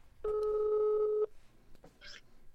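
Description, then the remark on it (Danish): A single steady ringback tone of an outgoing phone call sounds for about a second, loud, followed by faint line noise and a brief click. “Jeg ringer til Bertel Horter”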